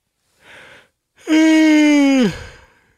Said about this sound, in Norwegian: Oi, dårlig timet gjesp. Snakker om et eget materiale, så gjesper jeg.